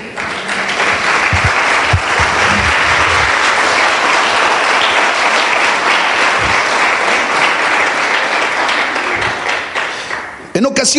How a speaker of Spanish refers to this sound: ¿Cuántos le pueden dar un aplauso al rey?